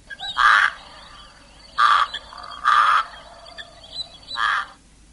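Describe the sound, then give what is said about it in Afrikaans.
A pied crow gives four loud, harsh, croaking caws, spaced irregularly about a second apart, with faint background birdsong in between and no talking. “Die gewone witborskraai, dan die Kaapse kraai, en dan die Indiese huiskraai wat nie 'n geluid op my rekenaar het nie.”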